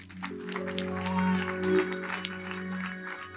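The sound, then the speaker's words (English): An audience applauds in a steady, dense patter of clapping, while sustained organ or keyboard chords swell underneath and hold throughout. “Oh, clap for Jesus.”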